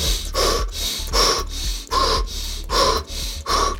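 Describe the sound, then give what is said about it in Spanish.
Loud breathing in quick, steady cycles demonstrating thoracic (chest) breathing: about seven sharp, gasping inhales and exhales in under four seconds, with no talking. “tu respiración tiene que ser una respiración torácica. ¿Qué significa una respiración torácica? Una respiración que vaya en este sentido.”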